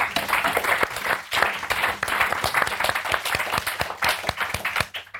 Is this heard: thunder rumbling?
no